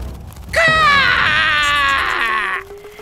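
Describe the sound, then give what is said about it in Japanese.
A single loud, shrill scream bursts out and holds for about two seconds before breaking off, with nothing else going on around it. It is the scream of the crow shop manager character as he loses his balance in flight and falls to the ground. “悲鳴を上げたカラス店長はふらふらとバランスを崩しゆっくりと地面に落ちてくる”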